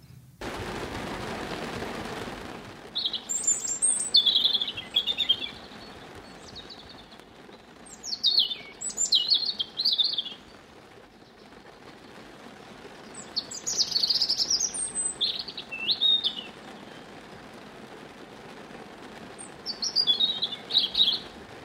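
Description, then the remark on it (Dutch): A European robin sings alone on the Staven estate on the Veluwe, in a series of high, warbling phrases separated by short pauses, clear over a soft outdoor hiss, with no one talking. “op landgoed Staven op de Veluwe om te luisteren naar het verhaal achter het geluid van de roodborst.”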